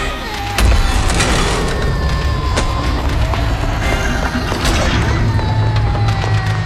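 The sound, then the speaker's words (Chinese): Objects picked up from the surroundings inside a building are smashed onto the head of a person who grabbed a child by the arm: several sharp, heavy cracks and thuds strike at irregular intervals over a loud, constant rumbling and clattering background, with no clear talking. “情急之下，只能拿起周围能拿起的东西砸在那人头上，算是的败了。”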